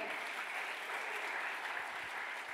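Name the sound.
loud applause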